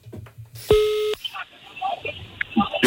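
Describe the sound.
A single short electronic telephone tone sounds clearly for about half a second as radio hosts phone a man live on air, followed by a hissy phone-line texture with faint, muffled voices underneath.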